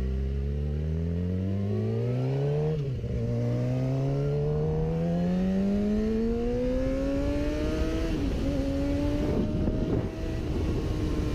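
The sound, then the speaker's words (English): A red sport motorcycle accelerates hard, passing a slower car on a double yellow line, its engine whine climbing steadily and dropping briefly at each upshift, loud and continuous over a low road rumble, with no voices. “I got uh, someone on a red crotch rocket.”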